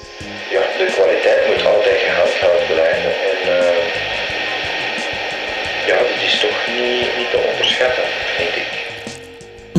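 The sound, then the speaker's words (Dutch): Steady, loud tape hiss fills an old cassette recording from 2005, with muffled, hard-to-make-out voices talking underneath the constant noise throughout. “Er zit veel ruis in, het is slecht te verstaan en het is 15 jaar oud.”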